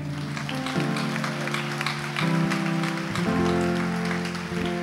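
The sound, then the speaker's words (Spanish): An audience applauds God steadily, a dense wash of clapping over sustained organ-like chords that shift pitch a few times throughout. “Dele un aplauso a Él.”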